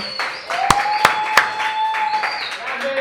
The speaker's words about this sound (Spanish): Bueno, bienvenido, un aplauso, por favor.